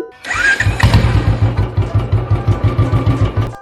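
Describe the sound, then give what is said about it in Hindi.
A Bullet motorcycle engine cranks with a brief starter whine, then settles into a loud, steady thumping idle of evenly spaced low beats, with no voices. “तुम्हें गाड़ी चाहिए या इंसान चाहिए क्या मायने रखता है इंसान का दिल या बुलेट का इंजन इंसान के मुंह से निकली हुई सुरली आवाज या बुलेट से निकली हुई”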